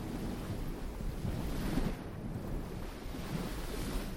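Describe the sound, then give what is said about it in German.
Ocean waves wash onto a beach in a continuous, steady roar of surf, swelling gently now and then, with no voices present. “Dann stell dir vor, du gehst bei Sonnenuntergang barfuß einen malerischen Sandstrand am Meer entlang.”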